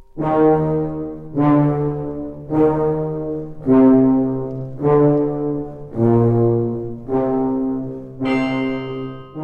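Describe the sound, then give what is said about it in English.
Tubas and brass low in an orchestra play the Dies Irae, a slow, solemn chant-like melody of about eight held notes, each swelling and fading in turn, loud and full with no voices. “And then on top of that, the final layer is we hear low in the orchestra the tubas and the brass playing the Dies Irae.”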